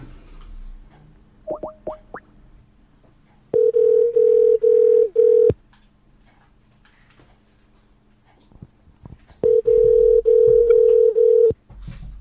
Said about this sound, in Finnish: nyt tässä välissä otetaan puhelu tuonne Turenkiin. Katsotaan, onko Rane ja Ranen vaimo paikalla. Ainakin soi.